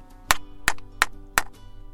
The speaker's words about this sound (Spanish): Tomó su martillo de madera y dio un golpe sobre su escritorio.